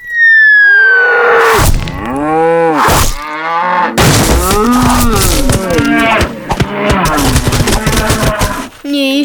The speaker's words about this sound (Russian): С неба падают коровы, тяжелые и рогатые. Со страшным мычанием приземляются на землю и давят под собой все живое